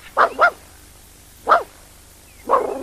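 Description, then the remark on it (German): A dog gives two quick barks, then after a pause a single bark, followed by a longer whining yelp. The sounds are fairly loud, with no talking. “Heul doch nicht so.”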